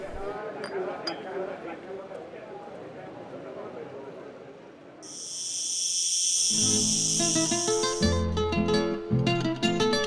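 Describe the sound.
A loud, steady, high-pitched cicada buzz holds for about three seconds after a stretch of talking, then cuts off as music with tinkling notes takes over.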